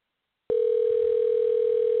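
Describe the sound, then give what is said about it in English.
After a brief silence, a telephone line tone starts abruptly as a call is placed and holds as a steady, unbroken electronic hum, fairly loud, with no voices. “Y'all hear y'all hear it ringing?”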